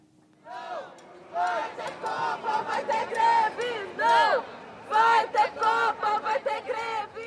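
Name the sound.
crowd of demonstrators chanting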